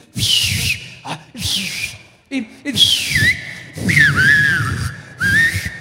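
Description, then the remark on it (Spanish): A person whistles in several short, breathy bursts, the pitch wavering and sliding between notes, with hissy air noise around each attempt and brief gaps between them. “Y, de repente ya podía silbar.”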